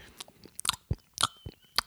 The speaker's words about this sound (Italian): Eh, il ghiaccio, si sente proprio il rumore del ghiaccio, si sente il rumore del, del pezzo di ghiaccio che si scioglie.